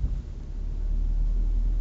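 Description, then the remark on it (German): Steady low-frequency rumble of a car interior while driving, a continuous deep road and engine drone with no voices, fairly loud and constant throughout. “Äh, wuhu, ich fliege durchs Auto.”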